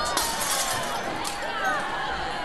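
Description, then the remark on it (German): A coloured stained glass window is smashed in, glass shattering loudly in a dense rush of crashing shards and bright tinkling fragments that keeps clattering for a couple of seconds, with a few sharper impacts along the way. “Durch das bunte Glas sieht man nichts. Schlag's ein!”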